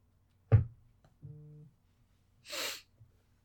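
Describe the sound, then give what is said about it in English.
A phone notification for incoming work messages sounds as one low, steady buzz lasting about half a second, following a sharp breathy burst and followed by a soft, hissing exhale. No one speaks. “That was my phone. Getting work messages still.”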